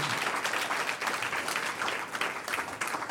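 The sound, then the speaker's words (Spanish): A large group claps for the Lord, a steady, dense wash of many overlapping hands sustained throughout, with no voices rising above it. “Un aplauso al Señor.”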